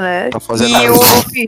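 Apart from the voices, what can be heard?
sneeze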